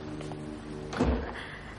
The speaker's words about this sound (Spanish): Balmón cierra la puerta tras él.